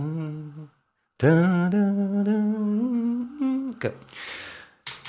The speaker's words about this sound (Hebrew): אם אתם מכירים את, ההמנון הקנדי, אה, המנון ידוע כי מנצחים די הרבה באולימפיאדה הקנדים, נשמע ככה.